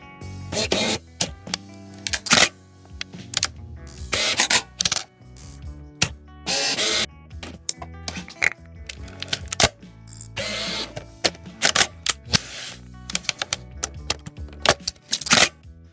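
Reflex camera shutter and lens sounds: a run of sharp, irregular mechanical clicks and snaps, broken up by short bursts of brighter whirring noise, fairly loud with brief pauses between.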